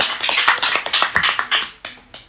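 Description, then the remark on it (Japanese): Brief applause: a dozen or so sharp, bright claps in a quick, slightly uneven rhythm, fairly loud with no voices, stopping after about two seconds. “俺なんか今拍手聞こえたな”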